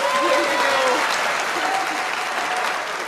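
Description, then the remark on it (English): An applause sound effect: a burst of dense, steady clapping from a crowd that holds at a fairly loud level for a few seconds before easing slightly, with faint voices mixed in underneath. “Please bring on an applaud”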